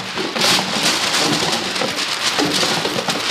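A loud, steady crackling roar of imitation thunder, made by shaking packing paper together with a cardboard box with batteries inside, dense and rain-like throughout with no voices.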